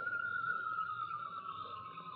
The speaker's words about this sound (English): what was that? Sound like Nightbird. Sometime night bird warn of danger.